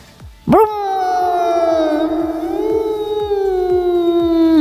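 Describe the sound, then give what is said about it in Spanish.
A voice imitates a Scalextric slot car being pushed along, with one long, steady buzzing hum, held at a fairly even mid pitch with slight wavering for about four seconds after a sharp start. “Así es como hace el, el coche. El ¿Sabes? coche en el escalestri.”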